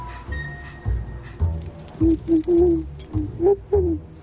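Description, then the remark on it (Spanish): A black owl hoots in a quick series of about six short, clear calls after a quieter opening, set against a low background rumble and faint rustling. “La lechuza negra tiene un mensaje.”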